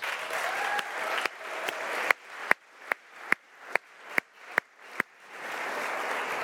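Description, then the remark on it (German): An audience at the Pfingstgemeinde Uster church bursts into steady applause, breaks into loud rhythmic clapping in unison for several beats, then returns to a dense wash of scattered clapping. “Gebt doch denen noch mal einen Applaus.”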